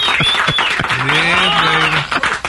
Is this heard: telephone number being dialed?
no